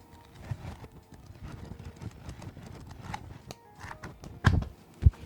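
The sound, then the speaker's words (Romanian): Magazine pages being leafed through as ASMR: a steady soft papery rustle and crinkle, then two sharper, louder flaps near the end as pages turn. No one speaks. “Uitați, hai să facem un pic de ASMR, uh, ASMR nu? Și sper să-i simțiți mirosul paginilor acestei reviste.”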